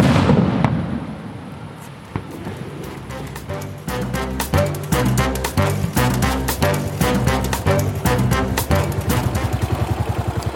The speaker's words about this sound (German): Und äh, ich glaube jetzt so dieses Rauschen des Wassers im Hintergrund in Verbindung mit diesem Bollern des äh, Feuerwerks in den Bergen, ich kann mir gut vorstellen, dass wir dabei gut einschlafen.